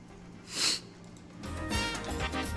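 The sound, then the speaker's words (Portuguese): A quick, sharp sniff as a man uses a corticosteroid inhaler, followed by about a second of longer, breathy rushing noise as air is drawn in. “Essa fungada aí, hein? Tá usando bombinha, velho. Tá, bombinha de corticóide.”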